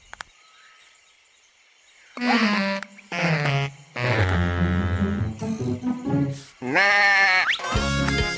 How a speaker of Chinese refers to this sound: 好主意！快帮我把山羊叫出来吧。说咩！再来一次。